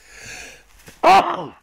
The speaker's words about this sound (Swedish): Oj, förlåt. Prosit, tack.